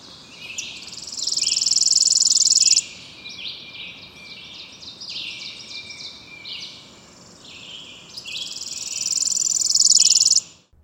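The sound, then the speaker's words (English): A worm-eating warbler's song: a dry, buzzy, insect-like trill lasting a couple of seconds, repeated twice with softer chirring and background insect buzz in between. No one speaks. “and here's the worm eating warbler.”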